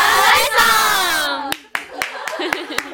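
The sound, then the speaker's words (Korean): A group with hands joined shouts their own 'fighting' team cheer together after a count of one, two, three, a bright chorus of voices lasting over a second, followed by a series of sharp, scattered claps. “그 화이팅 구호를 만들었어요.”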